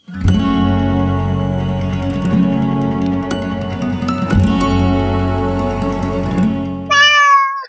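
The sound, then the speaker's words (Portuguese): A sustained, droning musical backdrop plays for several seconds, then a cat, Farofino from Monteiro Lobato's tale A Assembleia dos Ratos, lets out a single short, clear meow near the end, fairly loud. “Um gato de nome Farofino deu de fazer tal destroço na rataria de uma casa velha que os sobreviventes, sem ânimo de sair das tocas, estavam a ponto de morrer de fome.”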